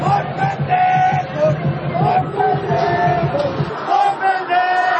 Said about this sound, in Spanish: Y entonces la Arena México se para para vitorear. El estruendo fue aterrador, un balazo que acabó con los técnicos.